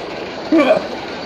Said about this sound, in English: I'm looking at a, uh, a street in India, uh, and there's a train track, a um, couple people walking down. Train is coming. Donkey is half on the tracks.